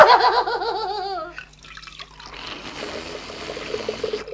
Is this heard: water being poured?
yes